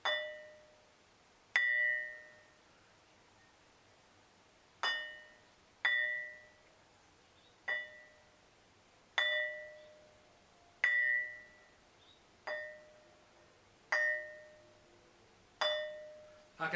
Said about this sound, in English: the metamorphosized quartzite that's underneath. And that's how it rings.